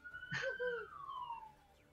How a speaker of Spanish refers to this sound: ¿A quién le sonó la sirena? ¡Mamá! De investigación. Estamos hablando de la PDI.